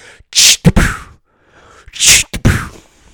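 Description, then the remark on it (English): A voice imitates the compressed air sound of an arcade game where you knock over a clown's teeth, twice, each a sharp breathy hiss followed by a quick puff and pop, spaced about a second and a half apart, fairly loud. “you know that game at the arcade where you have the little Skee-Ball and you have to knock over the clown's teeth and you hear that compressed air sound”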